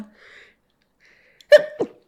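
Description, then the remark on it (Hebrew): A single sharp sneeze bursts out after a near-silent stretch, with a quick voiced follow-through right after the main burst. No talking. “לבריאות”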